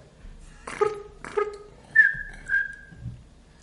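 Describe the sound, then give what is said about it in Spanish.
Someone whistles a brief tune: two quick clipped notes, then a longer sliding note that holds steady before fading out. No one speaks. “Al chiflidito, ¿no? Tiene algo que ver con la película.”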